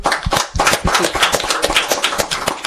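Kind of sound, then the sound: crowd, audience applause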